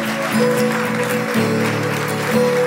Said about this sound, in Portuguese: Pessoas que estão se decidindo por Jesus, se entregando por Jesus, muito bom. Dê um aplauso para essas vidas, aplauda eles.